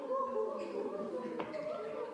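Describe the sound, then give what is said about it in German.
Several voices overlap in a steady, breathy chorus as a group of people mimic a cuckoo's call amid murmured vocal sounds, moderately loud throughout. “Ein Kuckuck.”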